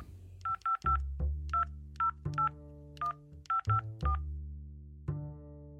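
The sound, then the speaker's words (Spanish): A phone number is dialed on a keypad: a quick series of short, clear touch-tone beeps in uneven bursts, fairly loud, with no voices. “Debería llamar para felicitarle, supongo. Busco el papelito donde tengo anotado el teléfono del hombre de tren.”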